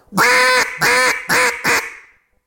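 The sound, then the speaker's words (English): Four loud, raspy quacks from a duck call, blown in a quick descending run, each note harsh and nasal, trailing off at the end with no talking. “You grab a call, stand on it.”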